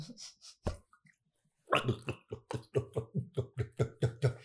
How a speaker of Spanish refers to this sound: Beber agua con desespero.